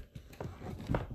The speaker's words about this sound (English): that's a cat jumping off the table sidebar.